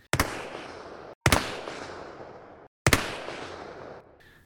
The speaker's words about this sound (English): What a hoot to imagine how they made those great sound effects. A door opening and closing. shoes walking across the floor, glass breaking, a gunshot.